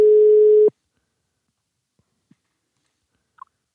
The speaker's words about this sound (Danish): Jeg har i hvert fald trykket ring op nu.